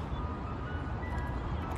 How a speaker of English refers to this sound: The ice cream truck in the back's the fucking delicious part.